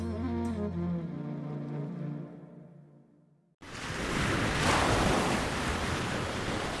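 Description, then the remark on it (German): A short musical passage fades out, then loud Pacific Ocean surf on the coast of Oregon, on the American West Coast, abruptly takes over, a steady rushing roar of breaking waves that swells slightly and continues to the end. “Für viele Menschen in Oregon ist hier an den Gestaden der amerikanischen Westküste die Welt zu Ende.”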